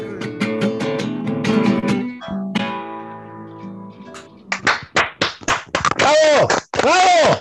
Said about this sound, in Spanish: ¡Aplausos!